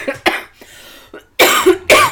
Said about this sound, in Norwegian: Unnskyld. Nå må jeg hoste